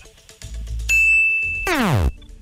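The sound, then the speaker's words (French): A quiz-show wrong-answer sting: a bright, ringing bing holds for a moment, then a loud downward-swooping tone slides away, all over a low rumble with no one speaking. “Ah, tu vois, on a mis un petit son de bing, mais c'est vraiment que c'est ah. pas la bonne réponse.”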